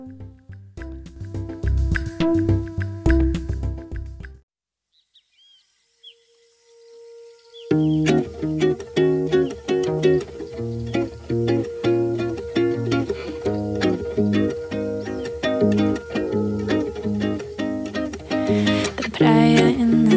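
A calm Brazilian song sung in English and partly in Portuguese plays loudly, breaking off into a few seconds of near silence before the full band returns with a steady, rhythmic groove and bright instrumental layers.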